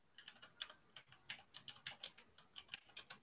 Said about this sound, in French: je crois qu'on t'entend taper.